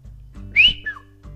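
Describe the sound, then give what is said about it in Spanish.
A person whistles a short two-note call signal, a bright rising note followed by a quick falling one, clear over a low steady background hum; it is a friend's invented signal calling someone out to play football. “Era el silbido de …, mi mejor amigo, y de esa forma me llamaba para ir a jugar fútbol”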